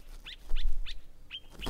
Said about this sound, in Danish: Det er gribe. Og det er dem, altså gribene, det skal handle om nu.